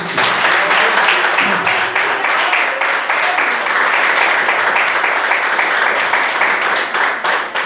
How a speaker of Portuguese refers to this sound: Vamos dar uma salva de palmas para Jesus Cristo.